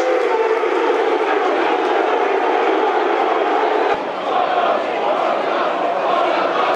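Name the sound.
crowd applause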